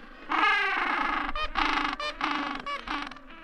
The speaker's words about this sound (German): Michael Dänes französischer Kollege Michael Beaulieu erforscht sozusagen die Sprache der Eselspinguine in der Antarktis. Und die ist nicht nur vielfältig, sondern auch laut.